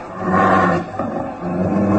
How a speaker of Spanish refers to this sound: No, no, ahora se oyó más claramente. Sí, sí fue un, un gruñido. Una fiera está allí, ahí entre aquellos arbustos, acechando.